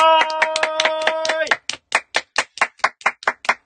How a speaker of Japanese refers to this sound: もう今週は拍手が止みません。